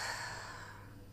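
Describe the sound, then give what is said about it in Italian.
A single soft, breathy exhale, a slow deep breath taken during a guided breathing exercise, fading gently over about a second, with no talking. “fai un primo respiro profondo. Inspiro ed espiro.”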